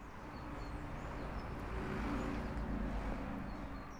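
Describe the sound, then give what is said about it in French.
Steady outdoor street ambience at a morning student blockade with barricades at the Bourdonnière high school in Nantes on Friday 14 February, with a constant low rumble of traffic and a broad wash of background noise, slightly swelling midway, with no clear voices standing out. “au lycée euh, Bourdonnière à Nantes, où en fait les lycéens bloquaient le lycée ce matin. ça a commencé à 6 heures. Ils ont monté quelques barricades et on vous passe le son tout de suite.”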